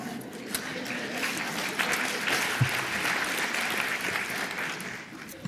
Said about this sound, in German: Das war ein müder Applaus, aber er war verdient.